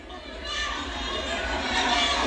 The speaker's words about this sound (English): Here's some audio from the House floor last night. Energetic crowd of uh, members of Congress on both sides of the aisle cheering on, hoping they could win.